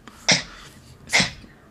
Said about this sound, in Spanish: Uy, se está ahogando el perro también